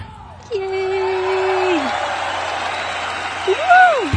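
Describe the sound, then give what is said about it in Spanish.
A sustained wash of crowd applause for the opening of the program Tenemos que hablar de K-Pop starts after a brief pause and keeps a steady, dense texture, with a few rising and falling whistles and whoops cutting through it. “Y aplausos, por favor.”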